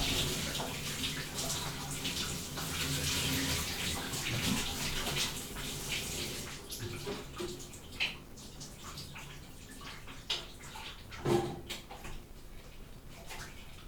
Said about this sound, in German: wenn jemand in der Nachtschicht arbeitet und dann nach Hause kommt und sich um zwei in der Nacht duscht